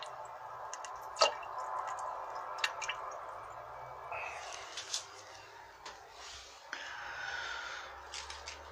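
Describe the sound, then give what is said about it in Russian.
A few brief, wet plops and drips of feces dropping into toilet water, spaced irregularly over a soft background hiss, fairly quiet, with no one talking. The toilet dates from Soviet times, around 1981. “Но ну, вхождение на, не на 10 баллов, на 8. Одна капелька долетела.”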